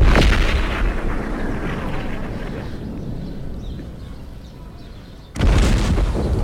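Heavy cannon fire rumbles in a dense, rolling barrage of deep booms, loud and continuous, easing slightly midway before a fresh burst of blasts erupts near the end, as the city of Cádiz, Spain, is bombarded during a long siege. No one speaks.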